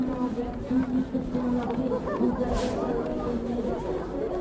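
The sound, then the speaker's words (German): A crowd of people running at a demonstration, heard as a dense, continuous rush of chatter and movement noise that stays fairly loud and steady throughout, with no single voice standing out. “Die rennen!”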